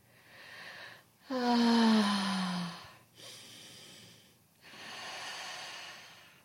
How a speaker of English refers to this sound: So, just a few deep breaths, breathing deep into your belly.